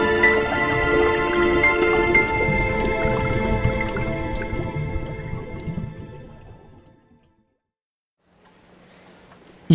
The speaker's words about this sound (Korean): 욕조 속 물거품이 보글보글 올라오고 있다.